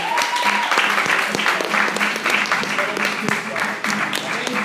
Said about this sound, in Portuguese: Eu quero que você aplauda mais uma vez.